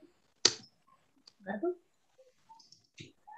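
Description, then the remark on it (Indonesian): A single sharp press of the Enter key on a keyboard, loud and abrupt, followed by a brief murmur of a voice and a few faint, scattered clicks. “Ya, atau di enter. Nah, enter.”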